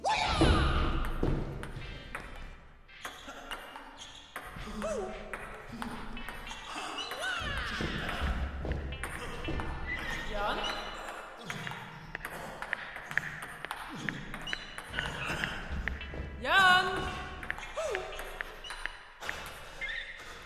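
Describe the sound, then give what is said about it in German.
A ping-pong ball bounces again and again in quick, irregular clicks, sharp hollow taps that keep going steadily throughout, with occasional duller thuds mixed in among them. “Und hör doch wenigstens mit diesem blöden Ping-Pong auf.”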